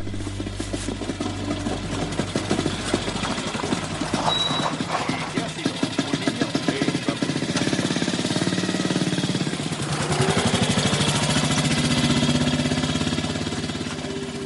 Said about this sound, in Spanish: Detrás, Erich, el marido de Elsa, también sale. Este se aleja de la casa en una moto con Sidecar.